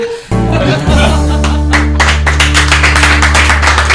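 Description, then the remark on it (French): Applause of several people clapping at the end of a Buzz Radio show, in a dense, irregular patter that builds after the first second, heard over a loud, sustained low musical chord that starts abruptly. “Et on applaudit ça mais oui Bravo”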